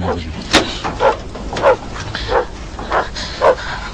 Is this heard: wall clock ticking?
no